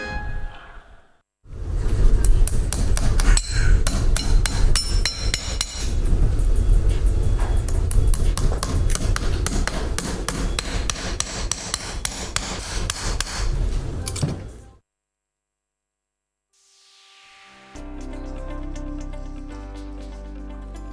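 A horseshoe being hammered onto a Ban'ei racehorse's hoof: rapid metallic strikes repeat steadily for about thirteen seconds, then stop, followed by a brief pause and a sustained tonal musical sound.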